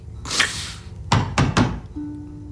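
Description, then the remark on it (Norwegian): Three firm, loud knocks in quick succession on the wooden door of a home at Christmas, preceded by a softer muffled thump, with a faint low hum lingering afterward. “Winter er helt alene hjemme hos seg selv når noen banker på.”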